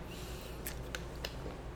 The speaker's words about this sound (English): Let me take a sip of the Leinenkugels before we get into the this date in Braves in baseball history.